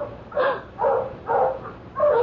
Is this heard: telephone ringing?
no